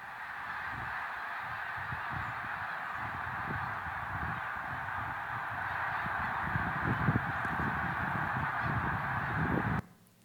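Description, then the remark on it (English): A huge flock of birds at Pungo flies overhead, calling in a dense, continuous wall of honking that stays loud and steady for about ten seconds before cutting off abruptly. “So this is the video of the birds at Pungo. If you, I hope we have audio because it is quite loud.”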